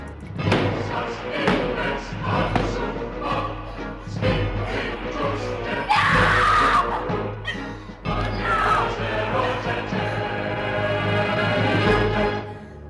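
In a video game, heavy thuds of flat hands pounding on a locked front door, followed by a loud, desperate scream that rings out over a dense, rumbling background.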